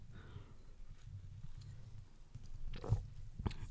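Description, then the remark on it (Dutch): A few quiet slurping sips of coffee, two brief wet bursts near the end over a low, steady background rumble, with no talking. “Ik ehm, heb maar weet je wat, ik drink gewoon even een slok koffie.”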